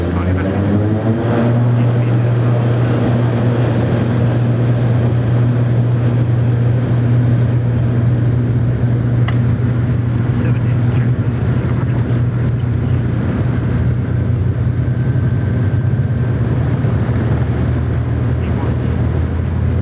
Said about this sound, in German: Es war ja wirklich sehr ruhig am Flughafen in Sonderborg. Kein anderes Flugzeug war unterwegs. Also rauf auf die Bahn und die Schubhebel nach vorne gedrückt und weiter geht's dann gleich in der Luft.